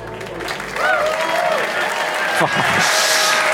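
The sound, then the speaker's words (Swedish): A crowd applauds steadily as two performers are welcomed on stage for the second act of the live show Follow the Money, a dense wash of clapping that swells after the first half second and holds loud and even, with a few brief cheers or voices rising through it. “Applådera upp på scen”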